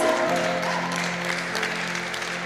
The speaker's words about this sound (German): Es ist der Hammer, ja, es ist ein Applaus wert,